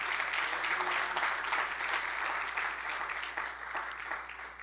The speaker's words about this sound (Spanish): Se atreve a darle un aplauso al Señor en esta tarde.